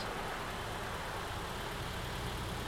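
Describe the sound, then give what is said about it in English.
A car engine idles steadily after the car pulls up behind another car following a minor collision, a constant low rumble with a faint mechanical hum that stays level for the whole moment, with no voices. “Just up ahead, the other car pulls over, so you pull up behind it and, and turn off your engine.”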